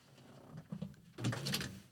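A couple of soft, low knocks on a door, followed by a louder, brighter rattle and shuffle like the door being handled, with no voices.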